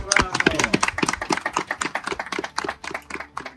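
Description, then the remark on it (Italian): Applause at the Bagno Grande archaeological excavation of an ancient Roman sanctuary, greeting the live recovery of a find from the hot water and mud: a crowd clapping steadily in a dense, irregular patter of sharp claps for a few seconds, with a few voices mixed in underneath. “Quelli che avete appena sentito sono gli applausi che hanno accolto in diretta sullo scavo del bagno grande il recupero dell'ultima meraviglia restituita dall'acqua bollente e dal fango del santuario romano.”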